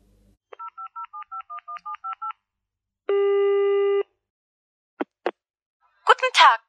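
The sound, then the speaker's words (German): A quick run of about ten short telephone keypad dialing tones from a public phone booth, evenly paced, followed by a longer steady tone, two sharp clicks, and a brief burst of voice on the line. “Wütend, ob des Hungers oder einfach weil sie sich von Holger Kallmann plötzlich gründlich überrumpelt fühlte, stapfte sie zur nächsten Telefonzelle.”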